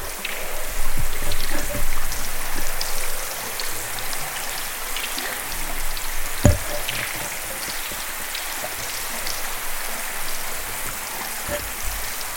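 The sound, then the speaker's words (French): Water drips steadily from a melting Antarctic glacier, recorded by the Guardian in Antarctica in 2020: a dense, even patter of countless drops with a few sharper, louder plinks standing out now and then. No voices. “Je vous propose d'écouter un petit morceau d'un glacier qui fout.”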